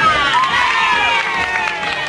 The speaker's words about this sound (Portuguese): Seria um dos maiores amigos do Carequinha, um dos grandes palhaços do Brasil, e nós vamos recebê-lo com muitas palmas. Aí vem o Arrelia!